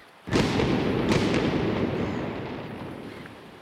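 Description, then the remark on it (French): A single cannon shot, fired as an old-time fog signal at a lighthouse station, booms out suddenly, then rolls away in a long, rumbling echo that fades slowly over several seconds. No voices are heard. “C'était le criard de brume de l'époque. Alors, c'était des, coups de canon aux demi-heures qui étaient envoyés.”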